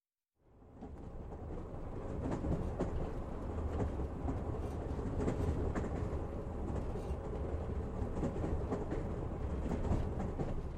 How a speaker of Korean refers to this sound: 오전 7시 7분, 노스다코타의 어디쯤. 철도에서 암트랙의 엠파이어 빌더 열차를 타고 시카고에서 오리건주 포틀랜드로 향하는 중.